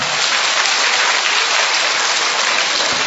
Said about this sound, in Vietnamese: tôi nói vậy mà cũng vỗ tay nữa